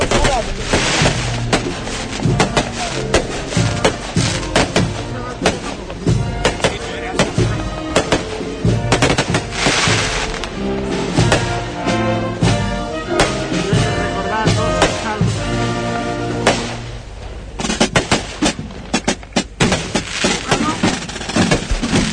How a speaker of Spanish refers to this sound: y numerosos los fuegos artificiales que en este momento están brillando en el firmamento.